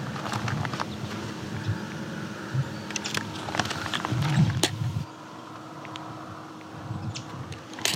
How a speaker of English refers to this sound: that's definitely yellow warbler. sounds come from a song sparrow, some crow in the background, American crow. yellow warbler is familiar with this. of the scolding behavior from a yellow warbler.